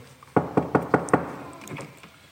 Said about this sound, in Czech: Tak, zaklepeme.